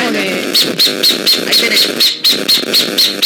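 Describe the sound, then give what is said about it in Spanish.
An owl's screech played through a phone speaker, a rapid series of about a dozen harsh, raspy calls repeating steadily several times a second, tinny and fairly loud. “Ese es el grito de la lechuza, fantástico.”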